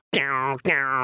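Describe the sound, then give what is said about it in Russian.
A buzzing double-headed drum is struck twice in quick succession, each loud hit sustaining a rattling, twangy drone that rings on briefly before the next stroke. “И дребезжание, и даже между ними иногда вставляют нитку такую, веревочку, чтобы она еще сильнее дребезжала.”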